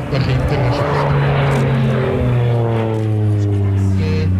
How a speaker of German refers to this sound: Es ist ein PC-7, wo gerade ein Looping präsentiert hat und jetzt auf dem Rücken am hohen Kasten vorbeischießt. Die Zuschauer sind beeindruckt.